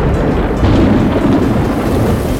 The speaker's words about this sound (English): One day in a bright spring, the two sisters went down the mountain to play in the West Lake. Suddenly it rained and they both got wet.